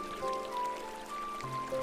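A river flows in a steady, gentle wash of running water, continuous and fairly soft, with a few faint tonal sounds above it and no one speaking.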